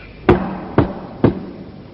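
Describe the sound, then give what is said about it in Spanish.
Three firm knocks on a door, evenly spaced about half a second apart, each a sharp thud with a short ring. No voices, just quiet between the raps. “llamaron a su puerta.”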